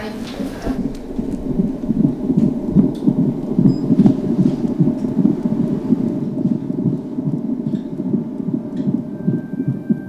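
An unborn baby's heartbeat picked up by a microphone: a fast, steady, muffled whooshing pulse that throbs continuously and fairly loudly through the whole recording, with no voices.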